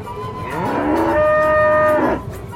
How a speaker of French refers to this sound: il y a une vache sur ma place.